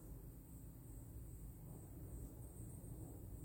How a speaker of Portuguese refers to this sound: Poder sentir essa brisa, escutar a natureza, apesar desse avião, deve ter algum aeroporto por aqui, por perto. Toda hora passa um avião, né?